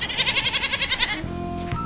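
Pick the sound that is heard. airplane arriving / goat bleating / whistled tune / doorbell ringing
goat bleating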